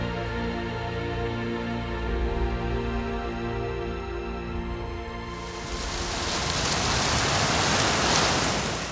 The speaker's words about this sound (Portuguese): A chuva rala que caiu durante toda a noite e transformou o caminho branco de ontem numa estrada de lama